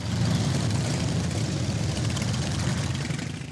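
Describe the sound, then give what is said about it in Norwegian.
A steady, loud engine rumble from the motorcycles of around a hundred members of a motorcycle club riding to the courthouse in Curitiba, southern Brazil: a continuous low growl with idling texture that holds for the whole few seconds, no voices over it. “Et hundretalls medlemmer av en motorsykkelklubb i byen Curitiba i det sørlige Brasil er ute på et spesielt oppdrag.”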